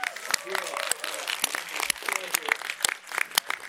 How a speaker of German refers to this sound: Genau, einen großen Applaus für, für unsere äh, Schauspielerinnen hier.